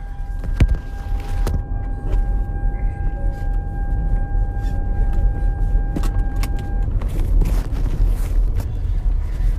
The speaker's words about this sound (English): All right, I had to put my seatbelt on get that noise to go off.